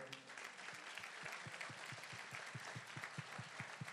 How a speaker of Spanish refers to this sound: Yo creo que esto merita un aplauso para el Señor.